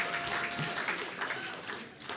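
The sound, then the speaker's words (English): Steady audience applause, many hands clapping in a dense, continuous patter at an even, moderate loudness for a couple of seconds, with no one speaking over it. “yeah, you should applaud for that.”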